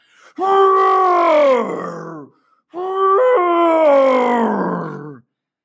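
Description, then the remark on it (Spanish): Two loud, drawn-out lion roars with a groaning quality, each sliding downward in pitch and separated by a brief pause, with nothing else in the background. “El ratoncillo, al que le había tenido piedad, escuchó su gran rugido a la distancia y decidió inmediatamente acercarse para ver lo que sucedía.”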